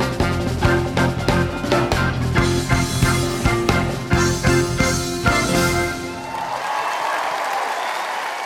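A band plays loud, rhythmic music with steady beats for about six seconds, then stops and is followed by a sustained wash of audience applause and clapping.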